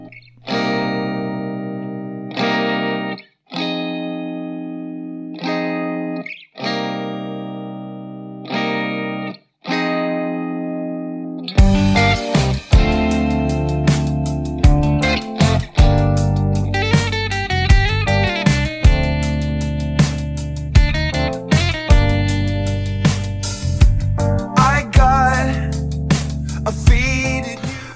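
A rock track from a band's latest album opens with distorted electric guitar chords struck in separate, ringing bursts, then drums and the full band crash in for a loud, dense, driving groove.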